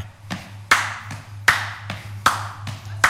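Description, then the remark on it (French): Hands clap a steady binary rhythm as a demonstration of binary time: loud accented claps on each beat with softer claps falling evenly halfway between, a sharp bright snap repeating without any voices, over a low steady hum. “Binaire.”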